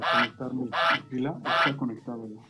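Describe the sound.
A voice imitates a goose honking: three loud, harsh, nasal honks about half a second apart, with shorter squawking sounds between them, with no other sounds around.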